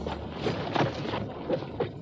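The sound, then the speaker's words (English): Horse hooves clip-clop in a few scattered, uneven strikes over a steady low outdoor rumble with no one speaking. “I'll tie up my horse and take a look at that wheel.”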